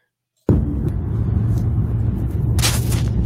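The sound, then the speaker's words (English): Steady low road rumble inside a moving car driven by a lone driver starts abruptly after a brief silence and continues evenly, with a short hiss of tire or wind noise swelling near the end. No talking. “Ramblings in the car.”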